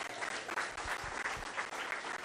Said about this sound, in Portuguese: Aplauda Jesus Cristo.